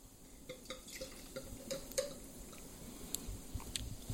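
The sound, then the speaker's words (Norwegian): Sparkling wine pours into a glass in Burgundy, with gurgling glugs, a rising liquid tone as the glass fills, and scattered small fizzy pops and clicks. No one speaks. “Kom med glasset ditt, da skal du være med på festen.”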